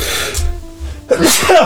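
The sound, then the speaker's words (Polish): A single loud sneeze bursts out near the end after a quiet breathy pause, with a sharp explosive release and a brief voiced trailing sound. “na zdrowie, na zdrowie”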